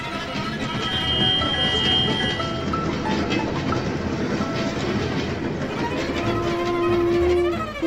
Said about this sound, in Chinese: 请第一台叮叮车靠边停，另外一台车要往前哦。